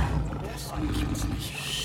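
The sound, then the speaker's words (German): A big cat named Iskandar, from Malaysia, lets out a deep, rumbling roar, loud and sustained for about two seconds, with a rough, growling texture throughout. “Eine normale Katze hat dir wohl nicht gereicht. Darf ich vorstellen? Das ist Iskandar aus Malaysia.”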